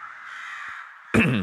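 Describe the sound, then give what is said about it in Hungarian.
Crows caw loudly at the start of a song, a harsh cry breaking in near the end over a steady, bright hiss-like background texture. No speech. “az a varjak az elején, az jó.”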